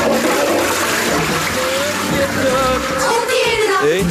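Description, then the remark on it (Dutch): A toilet flushes, a loud, steady rush of churning water with gurgling that swells near the end, filling the whole few seconds. “dan is de wc een paleisie.”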